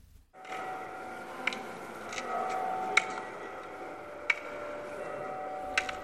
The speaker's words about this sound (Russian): Из третьего динамика звучит стук как символ острова. Как объяснила экскурсовод музея, такой стук производит трость, которой пользуются прокаженные, ослепшие от болезни.